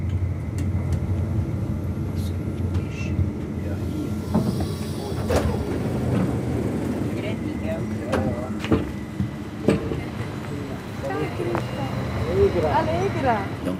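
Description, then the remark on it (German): Busy railway station ambience at the station of Niederwangen, a suburb of Bern: a steady low rumble of a train moving through, with indistinct voices and occasional clanks and squeals rising over the continuous mechanical noise. “hier am Bahnhof von Niederwangen bin ich sehr herzlich empfangen worden von einer Musikerin, die bei uns in Graubünden aufgewachsen ist.”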